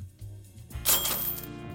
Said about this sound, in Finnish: No kellot kilahti.